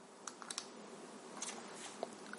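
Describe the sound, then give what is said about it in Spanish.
Small plastic buttons on a vape device click several times in an uneven sequence, three clicks to enter the menu and reset the puff counter, each press sharp, with no voices over them. “Para borrar los puffs, tres clics, nos metemos en el menú, le damos a menos o a más”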